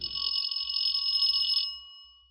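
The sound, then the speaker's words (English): A single sustained electric doorbell ring at an old brownstone house, a harsh high-pitched buzzing tone held steadily for under two seconds before cutting off, with a faint low rumble underneath and no voices. “No one was in a hurry to answer the doorbell.”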